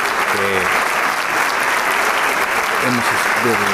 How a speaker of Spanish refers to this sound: y después ya todos los integrantes de Camerata que se pongan de pie y reciban este muy merecido aplauso ante una gran interpretación de estas variaciones de Haydn